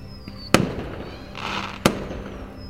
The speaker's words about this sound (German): Wie viel Schwarzpulver sich wohl unter dem Gebäude befindet, um solch ein Meisterwerk von Feuerwerkskunst zu zaubern.